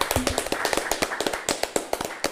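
A few people clap their hands in a quick, uneven burst, sharp crisp slaps tumbling over one another for a couple of seconds at steady moderate loudness, with no talking.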